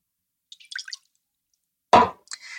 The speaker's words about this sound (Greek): Ε, το κρασί και το νερό είναι μισό ποτήρι υλικό μου κάνουν. Τα ρίχνω μέσα στην κατσαρόλα.